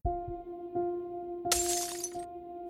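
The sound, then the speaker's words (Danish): Splintered glass shatters and falls to the ground in the early morning, a bright crashing burst of broken pieces for about a second, over a steady low hum with a few soft knocks before it. “Lyden af splindret glas, der falder til jorden, bryder stillheden i den tidlige morgen.”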